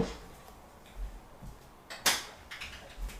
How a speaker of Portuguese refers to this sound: Fui abrir a porta aqui pro, pro Costelinha passar.